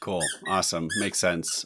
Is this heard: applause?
no